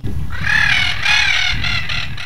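A Spix's macaw, flying again in the wild in the caatinga after more than 20 years extinct in the wild, gives a series of loud, harsh, raspy calls in quick succession over a low rumbling background.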